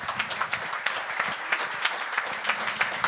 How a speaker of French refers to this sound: Good job! On peut l'applaudir! Yes!